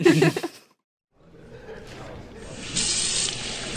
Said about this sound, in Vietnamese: Vặn vòi nước nhỏ thôi Bắn tung tóe ra sàn rồi cái kìa